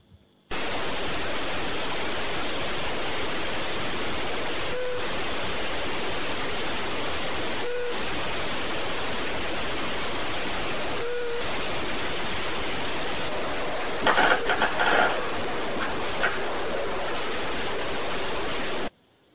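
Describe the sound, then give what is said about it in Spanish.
Three faint, evenly spaced, echo-like beeps sound through a loud, steady rushing hiss, with a brief burst of bed creaking from a person turning over in bed near the end. “fíjense que además los tres toques se oyen como, como con eco. Un pitido como con eco, ¿no?”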